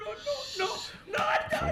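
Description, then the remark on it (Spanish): A creature panting in rough, breathy bursts, a long ragged exhale followed by a louder, hoarse gasp with a whining, voiced edge, wheezy and strained, with no words spoken. “¿Qué es ese ser que jadea?”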